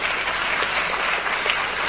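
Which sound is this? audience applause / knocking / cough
audience applause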